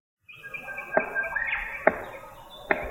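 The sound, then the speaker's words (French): A black cockatoo drums a stick on wood: three sharp, hollow knocks land roughly a second apart, distinct, while faint bird calls and chirps carry on in the background. “En fait, cet animal, c'est un cacatoès.”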